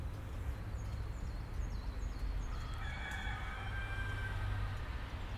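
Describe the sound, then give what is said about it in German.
A rooster crows once, its drawn-out cock-a-doodle-doo carrying over a steady low rumble of background noise, with faint chirping birds. “Nach dem Hahn stellt er das Uhrwerk.”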